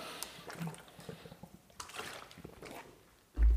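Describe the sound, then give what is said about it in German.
Soft wet sounds of someone quickly sipping and swallowing water, small slurps and gulps over a few seconds, ending with a brief low thump as a glass or bottle is set down. “Ich nehme nochmal schnell einen Schluck Wasser.”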